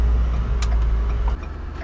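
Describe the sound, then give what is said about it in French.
A large truck engine rumbles steadily and loudly, a deep continuous drone that shifts slightly in tone toward the end, with no voices. “Avez-vous ça, vous autres, conduire des gros camions comme ça?”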